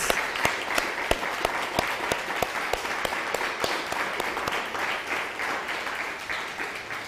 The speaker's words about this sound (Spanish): Un fuerte aplauso.